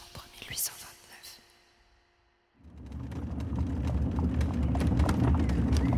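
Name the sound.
horse-drawn carriage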